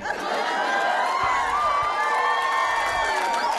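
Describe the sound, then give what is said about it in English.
An audience applauds with loud, steady cheering and whoops mixed in, a continuous crowd reaction lasting a few seconds with no one speaking over it. “Only the old people applaud.”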